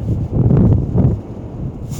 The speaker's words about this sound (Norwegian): Det ser ut som det er ganske rolig inni her i, i båthavna. Prøver å gjemme meg for vind. Sånn, kanskje. Det er Ganske rolig i båthavna. Jeg måtte bare ned og sjekke siden det var så mye vind.